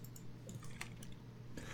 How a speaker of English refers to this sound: I'm, I'm clicking, and all, all, the links take me to the same page.